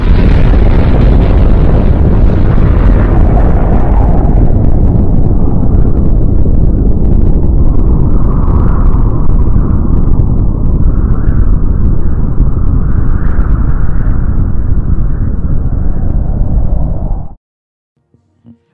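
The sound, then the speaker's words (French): A loud explosion sound effect: a heavy, booming roar that rumbles on for about seventeen seconds, slowly thinning out before cutting off abruptly into silence. No one speaks. “les gars, euh, je pense qu'on a survécu à l'explosion.”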